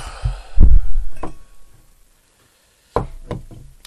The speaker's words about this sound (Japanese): ちょっと狭いな少々狭いのでちょっとカメカメラじゃないマイクを移動しますガサガサ言いますよよいしょよいしょ